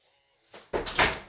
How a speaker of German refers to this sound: Ich mache mal kurz die Tür zu.